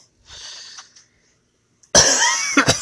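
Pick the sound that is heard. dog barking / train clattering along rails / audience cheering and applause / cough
cough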